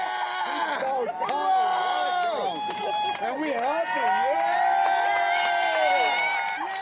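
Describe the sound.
A large crowd cheers and shouts outdoors in the streets of Boston at night after police announced catching the last of two bombing suspects, many voices whooping and yelling over one another in a loud, continuous roar of celebration that stays energetic throughout.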